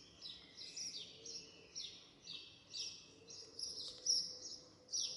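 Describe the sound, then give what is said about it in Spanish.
Birds sing continuously in high, repeated chirping phrases, several calls overlapping, with a quiet low background hum and no talking. “Parad un momento cualquier aparato, música o ruido y escuchad a los pájaros.”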